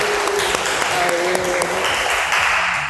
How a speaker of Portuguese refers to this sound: A gente tá aqui direto da Tapera Taperá, em São Paulo, na Terra da Garoa, gravando a abertura desse episódio ao vivo com uma galera aqui da pesada, não é isso? Salve de palmas, por favor.